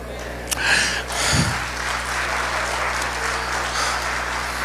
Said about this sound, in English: Hallelujah. I'm so glad you clapped today because I know that's everywhere I've ever been, that's been the desire of my heart.